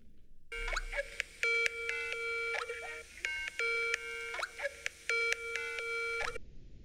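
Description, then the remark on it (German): A Skype call ringtone plays, a bright electronic tune of stacked tonal notes in short bursts repeating in a steady pattern for several seconds, with no talking over it. “Ich Skype sie mal an.”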